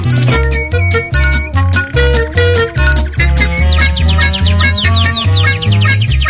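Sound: bird chirping in background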